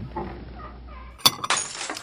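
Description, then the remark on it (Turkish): A drinking glass shatters with a sharp crash at about 1.25 seconds, followed by a bright burst of tinkling shards scattering for roughly half a second after a quiet, murmuring background. “özür dilerim bardağınızı kırdım. Kırıldı.”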